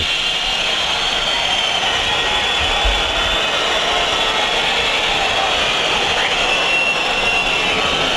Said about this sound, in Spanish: Bueno, pues ahí podéis escuchar la orquesta de viento, la, la, afición que pita a su equipo después de la desastrosa imagen ofrecida en el día de hoy nos la prometíamos felices en este partido ante Las Palmas y el final no puede ser más triste.